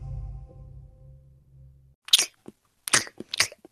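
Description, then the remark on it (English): Wet crunching of someone chewing crisp iceberg lettuce from a whole head of lettuce, a few bright bites in quick succession after a low steady hum that fades out. “I'm eating a twelve dollar head of iceberg lettuce.”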